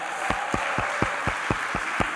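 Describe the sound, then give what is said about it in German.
An audience at an 11:30 church service applauding the senior pastor, a dense wash of clapping with strong rhythmic beats about four times a second, steady and fairly loud, with no voices over it. “Come on, lass uns mal unserem Senior Pastor Andreas Herrmann nochmal einen richtig großen Applaus geben, ey.”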